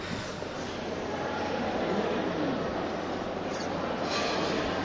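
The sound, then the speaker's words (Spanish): A dense, steady hubbub of a crowd inside a church, reverberant and continuous, with no single voice standing out from the even wash of murmuring. “ya tenemos de fondo, tenemos de fondo esos, sonidos, los sonidos ahora mismo que se escuchan es de dentro de la iglesia”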